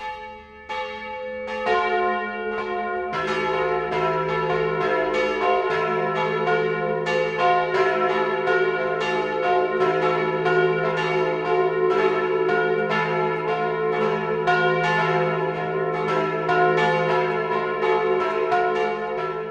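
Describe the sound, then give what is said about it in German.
Church bells of the church in Feldkirchen, in the Straubing-Bogen district of Lower Bavaria, Germany, ring the 12 o'clock midday peal, several bells clanging in overlapping strikes with a rich, sustained hum beneath, loud and steady throughout with no voices. “Das Mittagsläuten kommt heute aus Feldkirchen im niederbayerischen Landkreis Straubing-Bogen.”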